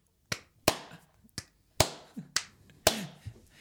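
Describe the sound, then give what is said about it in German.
A short burst of applause from a lone clapper welcoming a guest: about seven crisp, sharp handclaps in an uneven, loose rhythm, fairly loud, with no one talking. “Ähm, damit würde ich sagen, weil, weil JD einen Applaus hatte, kriegt auch äh, unser heutiger Gast, der großartige äh, Tom Trutz, einen Laparababa-Applaus von mir für ihn.”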